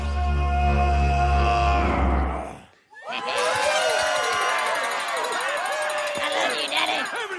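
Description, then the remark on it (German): A loud, deep, growling roar of an ogre from an animated film, made of a human voice mixed with added sound effects, holds for a couple of seconds, then cuts off into a burst of many people screaming and shouting. “Das ist der berüchtigte Schrei des Ogers in der Verfilmung von Shrek.”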